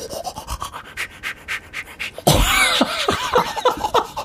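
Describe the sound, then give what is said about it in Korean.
A voice mimics toothbrushing with quick, regular, breathy scrubbing bursts at a steady rhythm, then a louder, noisier stretch with swooping voiced tones, like laughter, takes over. “뭐 사물 성대모사. 그러니까 뭐, 뭐 해봐요, 약간 그럼. 그, 그, 양치할 때.”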